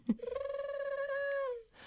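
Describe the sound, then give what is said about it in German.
A pigeon sound effect announcing a special segment: one drawn-out, buzzy tone that flutters briefly at the start and then slides gently downward, loud, with no talking over it. “okay, das ist die Taube und die Taube läutet immer ein besonderes Ereignis ein.”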